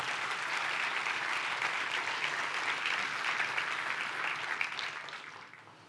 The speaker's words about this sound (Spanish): Dale un fuerte aplauso a Dios por eso.